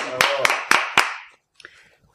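A short burst of applause, with four sharp, evenly spaced claps standing out over a bright, hissy wash, then quickly dying away into a few faint soft sounds.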